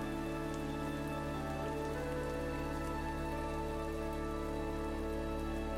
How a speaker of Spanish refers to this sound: Imagina que estás sentada o sentado en una silla cómoda, debajo de un techo pero al aire libre, mientras observas cómo la lluvia cae suavemente sobre el piso.